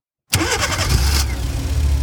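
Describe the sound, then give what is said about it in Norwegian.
A boat engine is started at sea at 2 pm after the wind dies out and the boat stops; it cranks with a quick starter whir, catches and settles into a steady, low rumbling idle. “Båten stopper opp, og vi starter motoren.”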